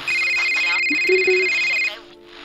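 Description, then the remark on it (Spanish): A telephone rings with a steady, high electronic trill that holds for about two seconds, partly under a voice, then cuts off abruptly. “El teléfono sonó.”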